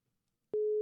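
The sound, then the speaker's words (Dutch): A steady electronic telephone ringback tone, heard while calling an expert on what heat does to the body, starts abruptly after a short silence and holds at one pitch, loud, with no voices. “We gaan bellen met een expert die verstand heeft van wat gebeurt er met je lichaam als het zo warm is.”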